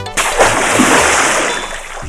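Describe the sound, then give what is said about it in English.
Water splashes and sprays steadily for about two seconds during a car wash, a loud, continuous wet hiss that starts abruptly, with no one talking. “help wash the car.”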